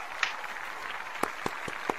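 An audience applauds steadily to welcome the evening's guest, a dense wash of many clapping hands with a handful of sharper, louder individual claps popping out in the second half. No one speaks.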